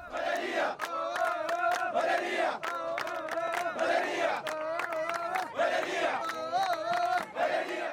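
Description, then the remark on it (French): A large crowd of protesters in Sudan chants revolutionary songs loudly in unison at night, demanding the fall of the military and a purely civilian government. Voices rise and fall in rhythmic, sung phrases that repeat with steady beats, forming a continuous mass of protest singing without pause. “Dans les nuits soudanaises, les chants révolutionnaires résonnent à nouveau, entrecoupés de sirènes hurlantes et de coups de feu.”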